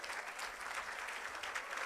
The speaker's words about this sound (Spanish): Dele un aplauso a Dios por esto.